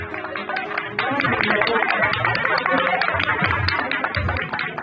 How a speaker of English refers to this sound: As they approached the house, Carlos began to hear clapping in the distance.